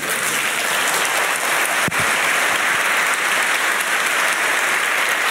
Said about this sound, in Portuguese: Se eu fosse você, eu aplaudia agora.